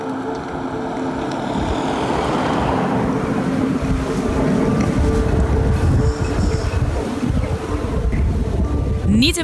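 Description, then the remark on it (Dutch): A wind turbine running, heard as a loud, steady low-pitched drone with a constant mechanical hum and a rushing, whooshing texture that continues unbroken for the whole stretch. “Maar wat nou als er wel een windmolen in je achtertuin staat en je dit geluid dag in dag uit hoort?”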